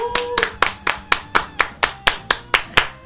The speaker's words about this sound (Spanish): El 10 de Aguante y Opina. Aplausos.